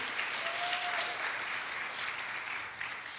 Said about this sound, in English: Give God a great clap offering. Amen.